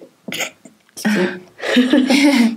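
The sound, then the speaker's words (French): A loud sneeze: a short breathy catch, then two forceful voiced bursts of noisy air, the last one drawn out for about a second. “à tes souhaits.”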